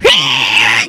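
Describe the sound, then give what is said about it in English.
A human voice imitates an angry myna bird with the mouth, one harsh, raspy screech that holds steady for under a second, loud. “That's an angry mina bird or this.”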